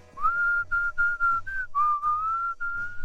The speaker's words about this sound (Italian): per rinfrescare la memoria, fischietto una canzoncina.